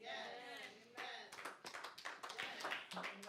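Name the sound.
a few claps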